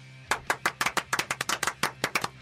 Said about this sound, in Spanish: Contento de esos aplausos. Esos aplausos sinceros del respetable. Es aplauso de jueves.